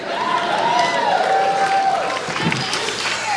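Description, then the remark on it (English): A live audience at a show in Portland cheers and boos at once as the performer cracks open a Miller High Life beer, a steady, loud crowd roar with a few individual voices yelling above the mass for about three seconds, one yelling the Miller High Life slogan. “some cheers, some booze.”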